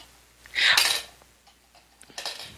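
Dice are rolled onto a table: a bright burst of rattling clatter, a few scattered small clicks as they settle, then a second, shorter rattle near the end. No one speaks.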